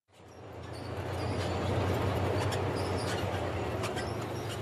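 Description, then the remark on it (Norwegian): Tanks of the Iraqi army advancing toward the city centre of Mosul, Iraq, in a steady, heavy rumble: deep engine drone with grinding, clanking track noise and occasional metallic squeaks, rising quickly and holding loud throughout, with no voices. “Lyden av stridsvogner i framrykking.”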